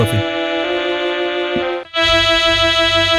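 A stylophone buzzes out sustained, shrill electronic tones, rich in harsh overtones. One steady note holds, cuts off briefly near the end, then a brighter, even more piercing tone takes over, loud.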